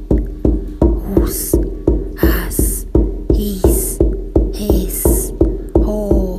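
Steady, booming shamanic journey drumbeats repeat at an even pace, about two or three per second, loud, with bright rattling or shimmering sounds flaring above some of the strokes.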